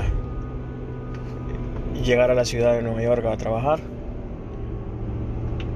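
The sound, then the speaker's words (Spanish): A steady, continuous rumble of passing car traffic on a road as someone heads toward the train station, a low wash of engine and tire noise, with a person talking briefly over it in the middle. “Es por eso que escuchan como un río de carros”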